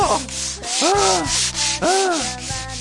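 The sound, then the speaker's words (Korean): At a bathhouse, an elderly woman scrubs another customer's skin hard with an exfoliating bath towel: a steady run of coarse, rasping back-and-forth strokes, with two brief squeaky rising-and-falling tones cutting through. No one speaks. “그리고 저 안쪽에 얼굴에 주름이 깊이 패이고 깡마른 할머님 한 분이 다른 손님의 때를 밀고 계셨어요.”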